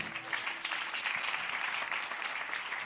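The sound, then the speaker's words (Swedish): An audience applauds the band in a steady, dense wash of many hands clapping at once, holding an even level for about three seconds with no voices standing out. “Man kan få ett applåd, eller hur?”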